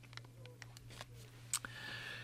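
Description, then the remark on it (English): Thin pages of a large Bible being turned, a series of soft papery rustles and a couple of crisp flicks, fairly quiet, over a steady low electrical hum. “You hear me turning the pages, don't you? I've got a big Bible here and it makes a noise when you when you turn the pages.”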